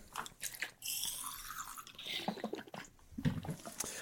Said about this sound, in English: Nice. You just took a nice sip of your fluids right into the mic. Yeah, I love fluids.